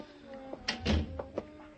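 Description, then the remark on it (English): The door of Linda Arnold's apartment opens: a few quick latch clicks and rattles, then a soft low thud as it swings, with faint room noise underneath and no one speaking. “But it wasn't Linda Arnold who opened the door for me.”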